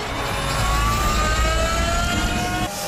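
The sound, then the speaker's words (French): A steady, high electric motor whine rises slightly in pitch over loud road and wind rush from a fast-moving French concept electric supercar with two electric motors and 815 horsepower, driven on Monaco roads along the circuit route, continuous, with no talking. “reconnais, je reconnais le petit bruit électrique derrière.”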